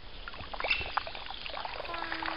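Cold water splashing and pouring over a person's hair in a courtyard to rinse off syrup, in a steady, uneven wash, with brief drips and slaps mixed into the continuous rush; no one speaks.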